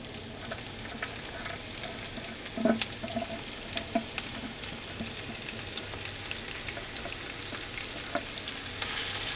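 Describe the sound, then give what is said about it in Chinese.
Steady, crackling sizzle of spices including cumin frying over low-to-medium heat in a pan just after a little water is added to keep them from burning, a dense hiss dotted with sharp pops and a few louder spits, continuous throughout with no voices. “那现在这个声音就是因为我刚刚稍微加了一点点的水，所以说它的水分会更加的蒸发的更加快一点。”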